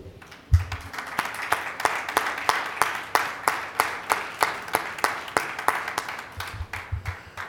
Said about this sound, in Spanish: Le enviamos un abrazo y un fuerte aplauso para ellos.